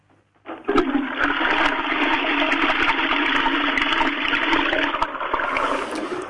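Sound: toilet flushing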